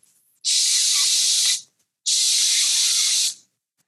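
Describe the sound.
Two loud, sustained "shh" hisses made by a voice, each lasting over a second with a brief pause between them, steady with no other sounds.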